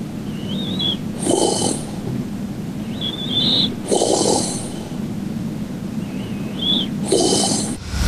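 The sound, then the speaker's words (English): A man's growling snore repeats three times at steady intervals, each rough, rasping inhale swelling then fading, with a faint whistling tone between breaths. Fairly loud, no talking. “This I call the growl.”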